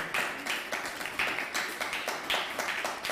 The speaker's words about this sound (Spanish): Así que denle un fuerte aplauso al Padre Eterno que hoy nos ve.